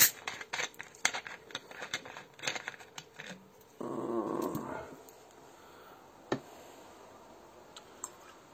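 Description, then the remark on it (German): Someone opens a Coca-Cola bottle from the fridge with one hand: a run of small plastic clicks and crackles from the twisting cap, then a brief rushing fizz of released gas, followed by a few scattered ticks. “Mal gucken, wie ich die Cola-Flasche mit einer Hand aufkriege hier.”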